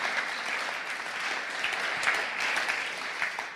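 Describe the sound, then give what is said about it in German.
A crowd applauds steadily for God, a dense wash of many hands clapping at once with no pauses, moderately loud throughout. “Und lass uns Gott für das einen Applaus geben.”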